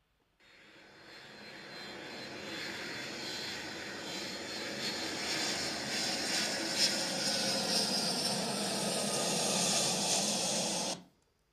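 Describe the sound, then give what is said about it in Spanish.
An airplane taking off passes overhead with a broad, steady engine roar and hiss that builds quickly, holds loud for several seconds, then cuts off abruptly, with no voices. “Muy, muy bien, el avión.”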